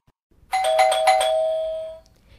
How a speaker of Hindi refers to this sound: क्या ये ज़रूरी है कि तीन बार घंटी बजने से पहले दरवाज़ा खोला ही ना जाए ऐसा भी कौन सा पहाड़ काट रही होती हो आदमी थका मांदा ऑफिस से आए और पांच मिनट दरवाजे पर ही खड़ा रहे